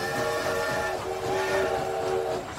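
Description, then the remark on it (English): A short train-themed jingle introducing a chat segment, dominated by a loud, sustained train whistle chord that holds steady and shifts pitch slightly partway through, with a rumbling rail-like bed underneath and no talking. “The chat train is pulling into Nat's provocation station. Choo choo!”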